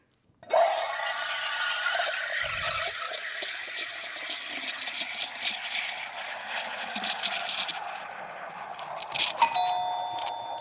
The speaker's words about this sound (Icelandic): Það er hérna, þið veitir, hérna, cappuccino, það er verið að flóa mjölk. Nákvæmlega, það er verið að flóa mjölk í ah. cappuccino.